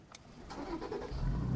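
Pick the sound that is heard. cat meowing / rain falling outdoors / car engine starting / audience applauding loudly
car engine starting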